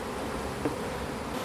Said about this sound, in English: this is the noise of some bees